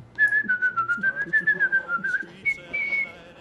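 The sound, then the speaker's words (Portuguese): Someone whistles a short melody, a clear tone gliding gently between notes with a pulsing, rhythmic phrasing before stepping up to a higher held note near the end. “Não, só você ficaria suave, olhando pro teto, ah, assobiando.”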